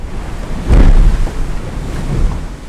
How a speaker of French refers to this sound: J'arrive dans le front, qui est plus fort que prévu, surtout en rafale, il y a des grosses grosses rafales. ouais, je crois qu'encore une fois, je crois que c'est 44 nœuds le max à peu près.